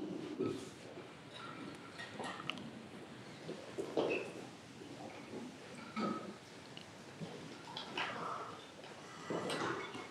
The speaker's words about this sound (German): vielleicht die beiden Türen oder alle drei Türen mal kurz aufmachen